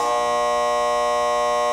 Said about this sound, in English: So that buzzer means that is all the time we have for Lasso Up.